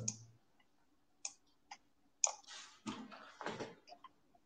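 Faint, sharp computer mouse clicks arrive a few at a time at irregular intervals, followed by soft rubbing and handling noises as the mouse is dragged. No one speaks.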